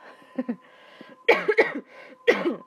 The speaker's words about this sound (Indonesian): tuh kan belum belum apa apa udah batuk